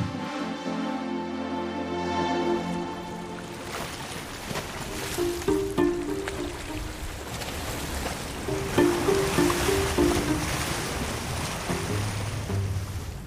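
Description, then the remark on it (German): Water of the Vierwaldstätter See heard from aboard a ship crossing the lake: a steady tonal engine drone at first, then continuous rushing, churning water with choppy splashes rising and falling. No voices. “Um zu erkunden, wie ein See klingt, gibt es wohl keinen besseren Ort als ein Schiff, das ihn überquert.”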